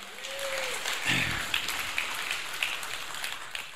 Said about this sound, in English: Give the Lord a great hand clap right there. Would you do that? Amen.